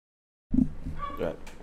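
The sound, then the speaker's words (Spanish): After a brief silence, the speaker's own dog lets out a burst of high, whiny yelps and cries lasting about a second, moderately loud. “Aquí estoy peleando con el micrófono porque tengo el perro pegando gritos grito.”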